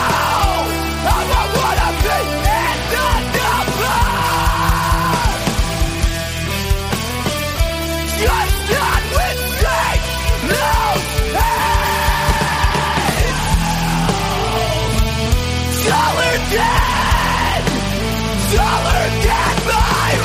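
A man screams and yells in harsh, sustained bursts over loud, dense music, his raw shouting up front and continuing almost without pause throughout.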